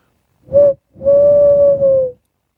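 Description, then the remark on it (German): A person imitates an owl call, the first of two recorded for a jingle: one short hoot, a brief pause, then a long, steady, drawn-out hoot, loud with no talking around it. “Und äh, jetzt hört ihr den ersten Eulenruf”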